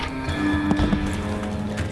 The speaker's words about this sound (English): Easy does it. We wouldn't want to spook the horses.